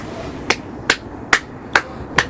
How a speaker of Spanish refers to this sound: Ah, un aplauso parece.